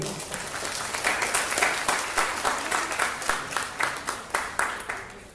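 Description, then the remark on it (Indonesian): An audience applauds a speaker after his talk, for about five seconds. A dense, steady patter of many hands thins into a few louder, more spaced claps toward the end. “tepuk sekali lagi.”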